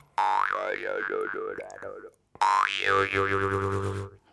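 A jaw harp twangs in two sustained phrases, its steady buzzing drone shaped into wobbling, vowel-like overtones that rise and fall rhythmically, loud, with a short pause between.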